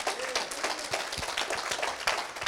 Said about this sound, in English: Can I get an amen? Come on, give the Lord a clap offering tonight.